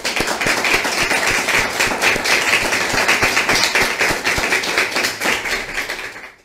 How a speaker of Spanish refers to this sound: Y les damos un fuerte aplauso a todos.